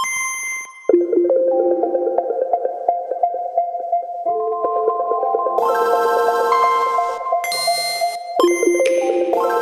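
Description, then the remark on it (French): A musical piece composed from the startup sounds of Nintendo consoles, from the Game Boy to the Switch: bright, bell-like electronic chimes and sustained tones shift through several distinct sections at a steady, fairly loud level, with no voices. “il a composé un morceau avec tous les sons de démarrage des consoles Nintendo, depuis la Game Boy jusqu'à la Switch.”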